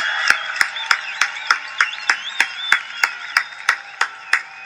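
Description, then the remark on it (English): A person squawks like an excited chicken: rapid, evenly spaced clucking pulses, about three per second, over a bright warbling chatter. Loud, with no talking. “Excited chicken Sounds like a super excited chicken”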